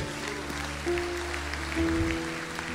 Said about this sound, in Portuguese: Aplaude o teu Deus, aplaude.